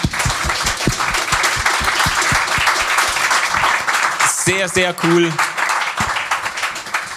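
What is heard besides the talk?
audience applause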